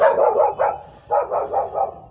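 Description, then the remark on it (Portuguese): A female dog barks repeatedly in quick, rhythmic bursts, two clusters of several barks separated by a short pause, fairly loud with no talking. “Concluindo, porque a cachorra não para de latir aqui.”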